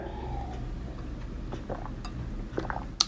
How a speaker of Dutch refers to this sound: ik zal even een slokje water pakken, anders dan krijg ik zo een hoesbui.